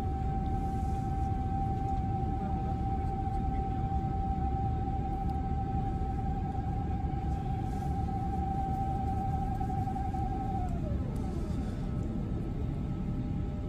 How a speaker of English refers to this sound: And um, you'll hear the flaps coming in, the first stage of flap coming in in a second, which is quite noisy actually. I was quite surprised. Uh, I was sitting directly over the wing. There it is.